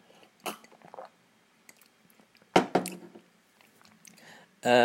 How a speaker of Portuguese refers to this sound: Um, aliás, até estou a ficar sem voz, vou beber água. Aquele momento de um gajo a beber água, esperem aí.